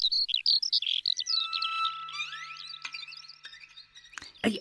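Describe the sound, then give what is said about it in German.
A skylark sings a rapid, unbroken stream of high, warbling chirps and trills, bright and busy with quick pitch jumps, with no voices over it. “Tschüss, kleiner Wicht. Tschüss, Lerche.”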